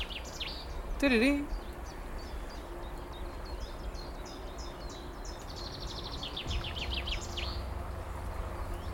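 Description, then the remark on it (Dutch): Chaffinch and chiffchaff song in open air: a run of repeated high chirping notes, then a rapid descending trill, over soft background hiss, with a brief low tonal sound near the start. “Ja, dus je hoort hier eigenlijk eh, vooral de vink en de tjiftjaf.”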